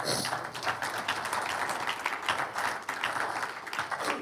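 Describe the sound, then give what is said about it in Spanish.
An audience breaks into steady applause for the Lord during a sermon, many hands clapping together in a dense, continuous patter that holds at an even loudness for several seconds with no voices on top. “Un aplauso al Señor.”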